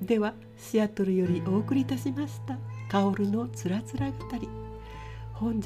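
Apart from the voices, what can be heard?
cat meowing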